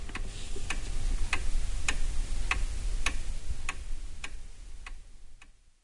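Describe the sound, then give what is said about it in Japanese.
A clock ticks steadily, about ten crisp, evenly spaced ticks over a low background rumble, with no voices, before the sound fades out at the end. “時計を見るとまだ午後8時”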